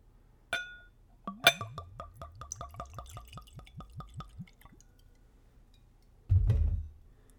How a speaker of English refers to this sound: We'll set off to the side and let's get a pour.